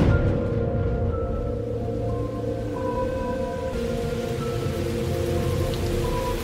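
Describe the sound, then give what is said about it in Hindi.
Steady, continuous rain pours down with a dense hiss and patter, while a low rumble of thunder rolls underneath; it has been raining since morning and the soil is completely soaked. No one speaks. “और सुबह से बारिश होने के कारण मिट्टी पूरी तरह से गीली हो गई थी चलने में भी बहुत परेशानी हो रही थी”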